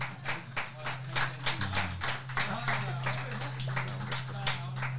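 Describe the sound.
A burst of audience clapping, a dense patter of many hands that stays steady throughout, with a low steady hum underneath and some voices mixed in.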